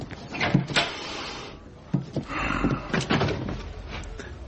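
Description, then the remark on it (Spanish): A door being opened: a few sharp clicks and knocks from a handle or latch, then rustling movement and a soft thud, with no one speaking. “Se dirige a la puerta.”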